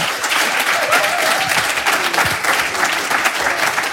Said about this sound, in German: Der erste Teil kommt jetzt und der zweite zum Ende der Sendung und ich wünsche Ihnen super viel Spaß und spendieren Sie ihnen doch nochmal einen motivierenden, vorfreudigen Applaus.